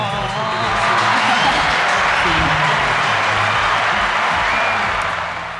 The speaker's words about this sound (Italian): Anche lì applauso subito, vai.